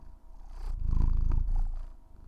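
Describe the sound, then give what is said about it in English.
A female cat purrs in a steady, low rumbling drone, swelling louder in the middle before easing off again, with no voices over it. “Okay, Marnie, can you hear her purring?”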